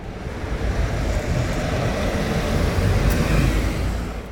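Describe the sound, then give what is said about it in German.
Steady road traffic noise in the town of Schwelm, a broad low rumble as vehicles pass by continuously, fairly loud and unbroken, with no voices. “Heute sind wir mittendrin, mitten im Verkehr.”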